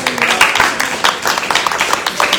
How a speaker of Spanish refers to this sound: Eso merece un aplauso para el Señor, a Dios sea la gloria.